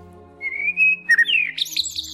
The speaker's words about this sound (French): C'est quelque chose de rassurant. En effet, oui, le chant des oiseaux étant lié au fait qu'il n'y a pas de danger.